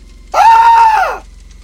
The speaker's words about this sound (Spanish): le destapa la boca a … para oírlo gritar